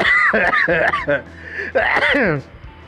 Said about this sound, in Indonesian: Sorry …, menyebut nama … kok bisa batuk gitu ya? bagaimana ini?